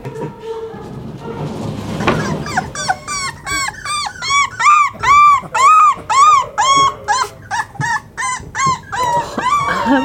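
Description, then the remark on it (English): High-pitched whimpers and yips from several young puppies, a rapid run of short squealing cries one after another, fairly loud, with no talking. “The puppies start spending time in the playroom when they're about a month old.”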